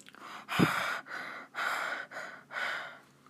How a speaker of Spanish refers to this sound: Trucas pasó a la siguiente página y escuchó una respiración.